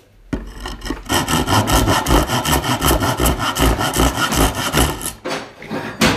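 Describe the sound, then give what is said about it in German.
A metal file rasps in quick, steady back-and-forth strokes, harsh and gritty, running loudly for several seconds before a short pause and one last burst of filing. “ist eine Pfeile. Ist doch fast das gleiche. Metallpfeile.”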